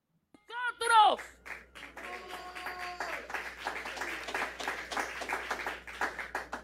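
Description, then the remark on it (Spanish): A crowd applauding a woman for saying that children must be defended bursts into steady applause and cheering after a brief rising vocal whoop, with dense, rapid clapping mixed with shouting voices that carries on at an even level to the end. “La aplauden porque dijo que hay que defender a los niños.”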